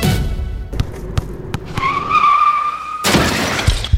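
A car's tires squeal in a sustained skid, then a loud crash hits with a burst of shattering glass and debris. Sharp impact thuds come just before, with no voices.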